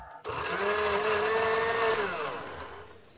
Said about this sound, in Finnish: Blenderi Wilfa BPF 1200B niin kuin Bertta. Hieno nimi ainakin.